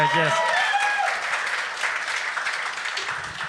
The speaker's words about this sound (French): Donnez-y une main ben d'applaudissement quand même.